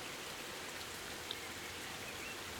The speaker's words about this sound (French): la magnifique chanson de la pluie et puis la magnifique chanson de l'orage aussi. qu'est-ce que c'est beau en fait.